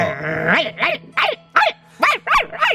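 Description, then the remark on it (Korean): On New Year's Eve, a dog growls briefly at a person, then barks at them in a quick run of about seven sharp yaps over a steady low hum. “왈왈 아니 새해 전날인데 개가 날 보고 짖고 있는 이 상황 아 올한해 운수 이거 느낌 좋지 않구만”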